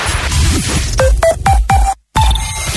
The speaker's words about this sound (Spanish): Cuando una moto va por la autopista suena así.